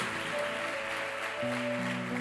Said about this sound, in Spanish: Démele fuerte ese aplauso al Señor por ellos. Fuerte ese aplauso. Son bienvenidos.